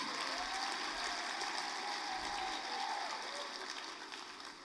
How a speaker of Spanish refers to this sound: Yo no estaba esperando que aplaudieran, pero...